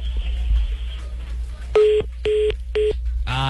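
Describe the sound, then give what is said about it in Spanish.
Three evenly spaced electronic phone beeps cut through a steady low hum on a call line, the warning tones a payphone gives as call credit runs out. “se acabó la monedita, hombre.”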